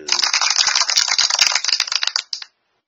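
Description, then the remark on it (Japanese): A short burst of applause sound effect: a dense, crackling wash of many hands clapping at once, fairly loud and steady for about two and a half seconds before cutting off abruptly. “交換音拍手。”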